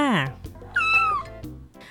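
Two clear cat meows: a short downward-sliding one, then after a brief pause a higher, longer, drawn-out meow that falls away, with faint background sound between them.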